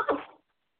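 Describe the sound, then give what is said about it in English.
A single short, fairly loud sneeze, bursting out and fading within half a second, followed by silence. “Bless you.”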